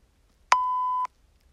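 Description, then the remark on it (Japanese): A single steady electronic censor bleep, a pure mid-pitched tone held for about half a second with sharp clicks at its start and end, alone against near silence. “あんまり放送してはいけないことを言う時はこうピー言うたらいいですね”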